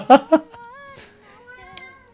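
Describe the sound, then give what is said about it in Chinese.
A cat meows: two short, loud chirping calls followed by one long, drawn-out meow that wavers slightly in pitch and slowly fades. No one speaks. “我跟你说，猫就是贱， 嗯， 就你要你要理它的话， 那它都不理你 永远对它永远都 嗯 跑得特别远。”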